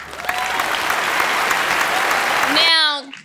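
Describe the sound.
An audience applauds loudly, a dense, steady wash of clapping with cheers mixed in, ending abruptly as a voice starts talking.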